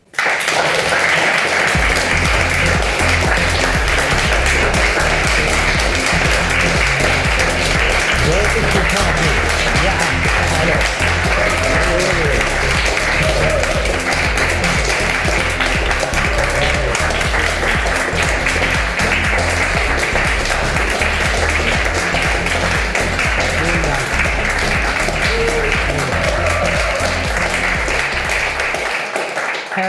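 Sustained, dense audience applause as a guest is welcomed fills the whole half minute, a loud, steady roar of many hands clapping at once with no pauses and no speech.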